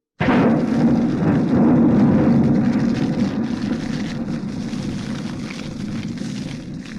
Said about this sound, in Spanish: He pecado, Moisés, Aarón. Rogad al Señor que cesen esos truenos no caigan más esas enormes piedras del cielo.